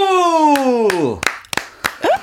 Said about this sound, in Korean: 박수!